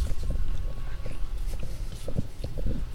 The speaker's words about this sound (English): Woof. Woof. Woof, as they say here.